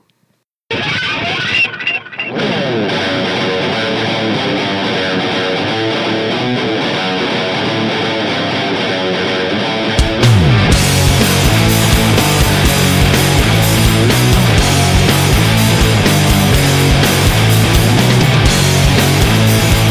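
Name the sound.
band's song played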